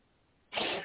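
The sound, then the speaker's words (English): A single sharp sneeze bursts out after a brief moment of quiet, loud and breathy, ending abruptly. “God bless you again.”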